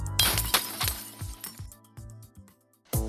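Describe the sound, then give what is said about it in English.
Glass shattering, in an advertisement for Havoc House in downtown Waynesboro, Virginia, where groups break glass: an opening smash followed by a cascade of tinkling, clinking shards and several smaller crashes, tapering off before one last sharp break near the end. No voices. “Join a group of friends, family, or coworkers to destroy electronics, break some glass, or even throw some axes.”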